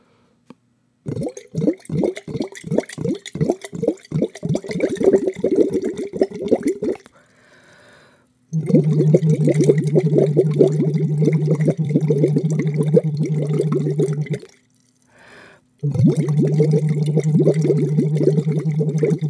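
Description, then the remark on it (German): Someone hums an "oo" through a silicone tube into water, making a burbling, bubbling drone; first a rapid pulsing series, then two long sustained bubbling hums separated by brief pauses, loud. “Das ist ein Silikonschlauch und da blubbert man auf U hinein und fühlt sich ganz wohl.”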